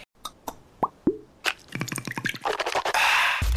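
A handful of sharp liquid plops and drips of Listerine mouthwash land one after another, then a quick burst of rapid bubbly splashes swells into a louder, hissing slosh of liquid at the end.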